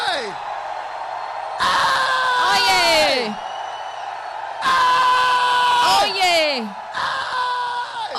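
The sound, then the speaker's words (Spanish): An audience at a church service erupts in loud, joyful shouting and whooping for the Lord, with three surging bursts of overlapping cries and high rising whoops, a single voice calling out between them. “Dale un grito de júbilo a alguien.”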